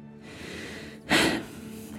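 A man takes a deep breath: a long, soft airy inhale followed by a shorter, louder, rushing exhale, with no talking.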